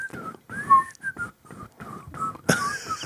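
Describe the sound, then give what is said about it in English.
A shaky, breathy, poorly whistled attempt at a TV theme song falters along in short broken phrases, with airy hiss between notes and a louder, strained burst near the end. “So I'm going to need you to start whistling the theme song.”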